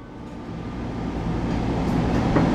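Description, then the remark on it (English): Steady low rumble of a Metro L Line (Gold Line) light rail train in motion above ground, heard from aboard, with a broad hum that builds slightly louder over a few seconds and no voices. “Welcome aboard the Metro L Line Gold.”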